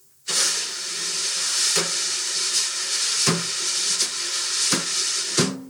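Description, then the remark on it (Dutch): Wire brushes, drumsticks with very thin iron rods, sweep steadily across a snare drum. They make a continuous, fairly loud swishing hiss like surf, broken by a few soft accented taps. “En het zijn drumstokken met hele dunne ijzeren staafjes eigenlijk. En eh, dat maakt dit geluid.”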